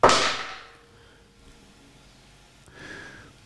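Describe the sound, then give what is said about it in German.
Dice clatter in a quick, loud burst as they are rolled to pick a score tip for a football match, the rattle fading within half a second, followed by quiet and a softer brief scrape near the end. “Da höre ich die Würfel.”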